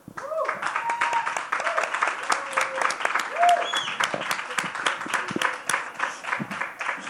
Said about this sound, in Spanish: En fin, yo pediría eh, un aplauso para nuestro invitado de hoy,